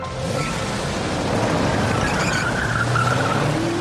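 A fully loaded Aston Martin V8 Vantage skids with a drawn-out tire squeal over a steady, loud engine roar, heard for a few seconds with no talking.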